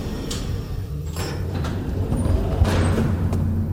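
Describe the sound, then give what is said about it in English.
An elevator's sliding door rumbles over a steady low mechanical hum, with a few brief airy swishes and a soft clunk as the panels move, moderately loud, with no voices. “This elevator will take us near the cold storage.”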